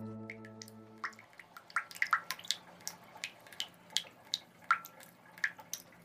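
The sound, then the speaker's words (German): Rainwater leaking through the roof of the Bundestag building drips steadily onto a surface, a dozen or so bright plinks at irregular intervals, clear, with a faint low hum fading out in the first second. “So klingt es manchmal im Bundestag. Es regnet da nämlich rein.”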